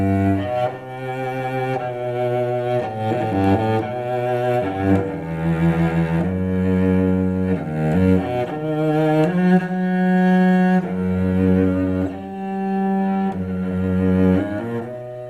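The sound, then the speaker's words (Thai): A solo cello, the world's oldest surviving cello, plays slow, sustained bowed notes in a rich low register, one phrase flowing into the next at steady, moderate loudness with no voices. “ยังมีคนที่เพราะว่าบรรเลงแล้วก็เก็บให้ให้ฟัง มีความยาวไม่ไม่กี่วินาทีครับ แต่ว่าเป็นสิ่งที่น่าสนใจว่าเชลโลตัวแรกที่ยังหลงเหลืออยู่ในโลกนี้เสียงเป็นอย่างไร ค่ะ เดี๋ยวลองฟังกันดูเลยค่ะ”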